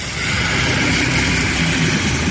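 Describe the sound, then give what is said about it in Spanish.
Heavy vehicle engines of Spain's Military Emergency Unit rumble steadily in snow as soldiers help free nearly 600 people trapped for hours, a continuous low, throbbing drone with a broad hiss on top, holding the same loud level throughout with no voices. “Este es el sonido de la unidad militar de emergencias, de los militares que han tenido que acudir para ayudar a liberar a las casi 600 personas que han permanecido atrapadas durante horas en ese punto.”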